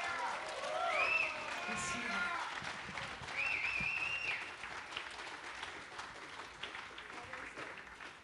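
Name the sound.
audience applause and cheering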